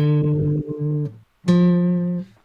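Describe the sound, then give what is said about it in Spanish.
A guitar plays two clear sustained notes in turn, D then a higher F a minor third above, each ringing for about a second; the first note is briefly re-struck before fading. “Pero son dos notas, eh, son re y fa. Ese intervalo es una tercera menor.”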